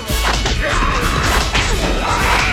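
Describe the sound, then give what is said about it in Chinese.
Loud, rapid punches land in a dense flurry as one person, eyes shut, swings his fists at a group of people, a string of heavy whacks and thuds with whooshing swings between them, continuous and chaotic with no voices. “小宝对着众人的方向挥拳”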